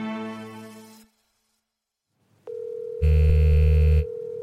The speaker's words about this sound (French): Tout commence par un coup de téléphone. Stridence, vibrations et clochettes déchirent le silence en une sorte d'impatience mécanique.